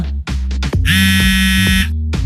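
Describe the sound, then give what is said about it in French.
A mobile phone that was left switched on rings with a single loud, buzzy electronic tone lasting about a second, steady in pitch and rich in harsh overtones, framed by brief bursts of other noise. “Oh, oh pardon, j'ai laissé mon téléphone allumé.”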